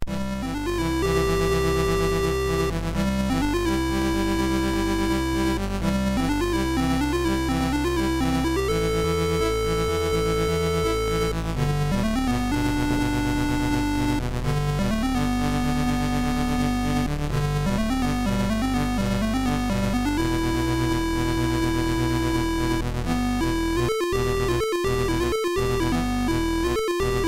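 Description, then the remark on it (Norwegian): Repetitive, somewhat tiresome retro computer game music from the game Eagles Nest, with buzzy, square-wave tones: a stepping melody over a steady bass line, played continuously at an even volume and stuttering in short breaks near the end. “Kan høre den litt slitsomme musikken fra Eagles Nest.”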